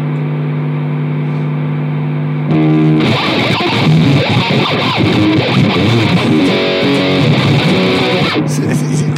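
An idle guitar amplifier hums steadily with no noise gate, then jumps into a loud, harsh buzz and crackling hiss that drones on to the end. Someone briefly laughs.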